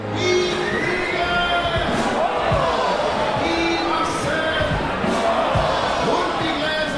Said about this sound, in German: Auf der Bühne stehen Gorselschnalzer und knallen ihre Peitschen in die Luft.